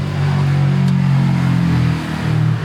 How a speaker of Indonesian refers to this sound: Gara-gara hujan kita terusin di rumah nih seperti biasa kalau di rumah banyak motor lewat